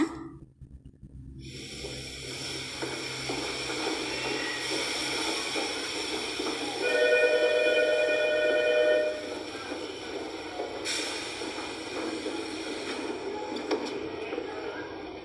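Steady rumbling and rattling inside a moving train carriage, with a brief high whining tone rising out of the noise midway before the ride settles back to its constant hum.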